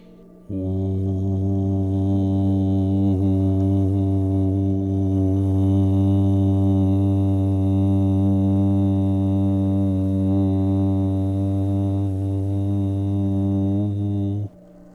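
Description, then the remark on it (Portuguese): A single deep, low-pitched vocal tone is held steadily for about fourteen seconds, droning with a rich, buzzy resonance at an even volume before stopping abruptly. It is the last, lowest sound of a descending vocal toning exercise, sung while visualizing energy in the perineum region. “Agora vamos com o bem grave, com uma energia na região do períneo.”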